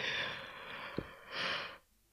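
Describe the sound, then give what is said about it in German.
A brief, breathy yawn drawn in at the microphone, airy noise swelling then fading over about two seconds, with no talking. “Kurzer Gähner, Entschuldigung.”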